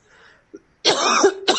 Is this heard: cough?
yes